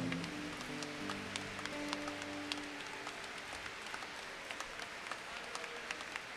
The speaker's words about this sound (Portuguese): aplaudir ao Senhor.